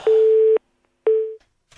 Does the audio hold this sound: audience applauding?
no